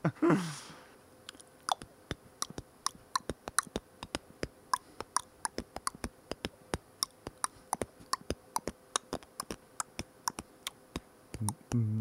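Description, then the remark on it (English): Beatboxing: a steady run of sharp mouth clicks and pops in a loose, quick rhythm, fairly soft and dry, with a short breathy burst at the start and no talking. “Yeah, I'm doing some jams? beatbox.”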